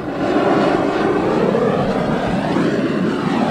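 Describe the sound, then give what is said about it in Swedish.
A steady, loud roar from a propane gas burner flame used to singe the last down off plucked birds, broad and rushing with a low rumbling core, holding constant for the whole stretch with no voices over it. “Det här är som en sägg gasolbrännare som man hade i plugget vid kemin.”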